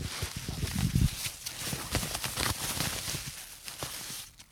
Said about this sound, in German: Oh, man hört sogar die Blätter, sehr schön.